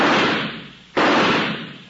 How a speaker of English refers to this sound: Well, she's going to work on the clay pigeons now. Good shot.